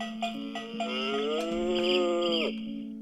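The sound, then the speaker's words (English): A person imitates a cow with one long, drawn-out moo lasting a few seconds, a voiced, harmonic lowing sound that swells slightly and then cuts off, fairly loud with no talking. “No, it was the cow voice.”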